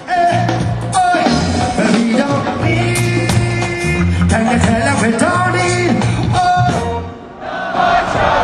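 A large festival crowd sings along loudly in a dense, sustained chorus of many voices blending with music, holding steady for several seconds before briefly dipping and swelling again.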